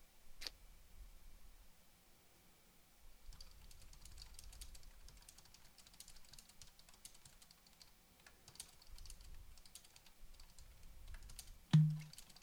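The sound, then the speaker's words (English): Steady typing on a computer keyboard, a run of quick light clicks in uneven bursts, quiet, ending with one sharper, louder tap. No one speaks. “He's currently typing, so let's let this all sink in”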